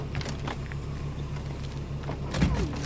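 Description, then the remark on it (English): A vehicle's rear doors clunk and slide open over a steady low engine hum, with a couple of mechanical thuds early on and a louder latch-and-swing sound near the end. “Open the back doors.”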